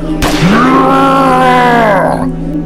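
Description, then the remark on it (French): A monstrous creature, struck by a hail of bullets as four men open fire on it, lets out a loud, drawn-out howl that swoops upward in pitch and holds for nearly two seconds before breaking off, preceded by a sharp snap. “Lorsque la créature fut à portée de tir, les quatre hommes ouvrirent le feu et un déluge de balles s'abattit sur la créature qui se mit à hurler.”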